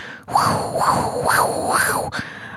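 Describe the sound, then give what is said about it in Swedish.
A voice imitates the hissing of a breast pump rented from a hospital pharmacy, a breathy wheeze rising and falling in four even cycles, fairly loud, with no other talk. “Och jag minns att den hade som ett väsande ljud. Så här.”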